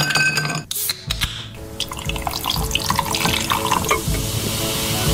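A fizzy drink is poured from a can into a glass, a steady splashing gush with crackling carbonation hiss that runs continuously after a brief faltering start. No one speaks.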